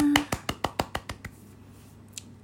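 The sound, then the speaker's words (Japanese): A lone person gives themselves a round of self-applause to open a livestream, clapping their hands about eight times in a quick, even rhythm, the sharp claps growing softer toward the end before falling quiet. “今日もセルフ拍手から始めてまいります”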